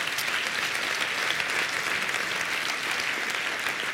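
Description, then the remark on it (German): Steady applause from a crowd, a dense continuous patter of many hands clapping at even loudness for several seconds, with no voices over it. “Das, das Time, ja, das verdient einen Applaus.”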